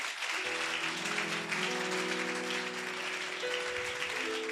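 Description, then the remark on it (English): A crowd applauds steadily for several seconds, a dense, loud wash of clapping, while sustained keyboard or organ chords swell underneath and keep going throughout. “If I'm talking to you, put your hands together for him.”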